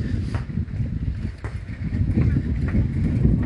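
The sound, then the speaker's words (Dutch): Strong wind buffets the microphone, a loud, continuous low rumble with gusty surges and crackling bursts throughout, no voice coming through. “Oh, heel veel wind, sorry.”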